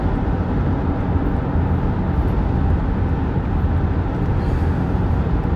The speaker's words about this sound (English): And after all that, the reason I'm in the car now is they need me to drive all the way back into the the same blooming place and sign a piece of paper.